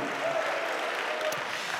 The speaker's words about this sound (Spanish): ¿Cuántos dicen amén y le dan un aplauso al Señor, amado hermano? A su nombre sea la gloria.